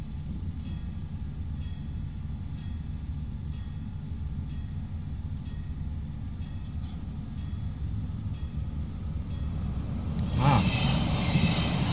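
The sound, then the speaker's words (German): A very short train, about 2.5 meters long, rumbles past a level crossing in the countryside, wheels clacking over rail joints in a steady rhythm, ending with a brief loud whoosh of rushing air. “Wow, wow, der war 2,50 Meter lang, der Zug.”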